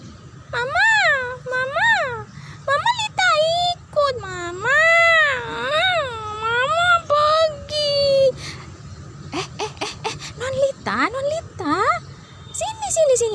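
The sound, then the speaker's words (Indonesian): A child cries loudly and continuously in high, wavering wails with rising and falling pitch, broken by short gasping pauses. “Jangan nangis seperti itu.”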